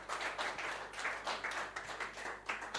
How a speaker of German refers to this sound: Wir lieben euch. Wir lieben euch. Lasst uns einen großen Applaus für unsere jungen Leute geben.